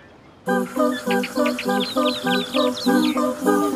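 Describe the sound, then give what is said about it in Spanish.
A rufous-collared sparrow chirps in a steady, rhythmic run of about eight quick, buzzy notes, fairly loud against a quiet background with no one talking. “La gente construyó casas para vivir junto a sus huertas y así cuidar que los pájaros no se comieran los brotes. Los chincoles son cosa seria.”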